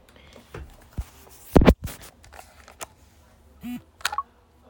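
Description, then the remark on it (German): Clicks of small keys on a braille keyboard as braille H (dots 1, 2 and 5) is held for about two seconds to leave an app, then a short low buzz as the device vibrates and returns to the home screen, followed by a few more key taps. “Um aus einer App rauszukommen, drückt man das Blindenschrift H, also Punkt 1, 2 und 5 für etwa 2 Sekunden. Das halbe vibriert und man kommt auf den Home-Button, äh, auf den Homescreen.”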